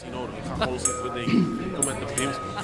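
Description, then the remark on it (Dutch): A few bright clinks ring out as something taps against a glass in a short, uneven pattern, tapping the Morse code letter K at the start of a speech, set against a murmur of voices and a faint steady hum. “begint met de eerste tik-tik-tik. Dat is in morsetaal de letter K.”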